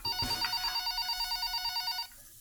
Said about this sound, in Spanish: La mañana del 8 de mayo de 2018 Christine Lagarde, directora del FMI, estaba en su oficina cuando sonó el teléfono.